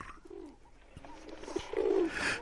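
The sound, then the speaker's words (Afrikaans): A small dove sitting high in a tree coos softly, a few low, throaty calls that swell toward the end, against a light hiss of background noise, with no talking. “Maar toe Dina haar oë oopmaak, sien sy klein duifie sit weer hoog bo in die vrye boom en klein duifie koer.”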